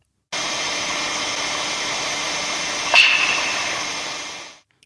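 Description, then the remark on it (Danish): A single sharp clap-like crackle from the aurora borealis, recorded at a height of about 70 metres, stands out once against a steady, loud rushing hiss that fills the whole recording, with no voices present. “Og nordlysets lyd, det er altså de her klapperagtige lyde, der i det her tilfælde er optaget i omkring 70 meters højde.”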